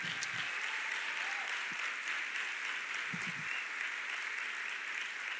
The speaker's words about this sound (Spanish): Amén. Un aplauso bien fuerte para el Señor.